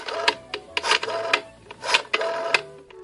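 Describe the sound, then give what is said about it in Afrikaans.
A rotary telephone dial turning and whirring back, giving a series of short, buzzy mechanical ratcheting bursts with sharp clicks in an uneven rhythm, with no talking. “Dis die telefoon met die ronde draaiskyfie.”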